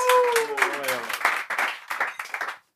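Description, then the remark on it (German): An audience applauds a guest being introduced, with dense, steady clapping that fades toward the end. A voice briefly calls out over the clapping near the start. “also großen Applaus, meine Damen und Herren”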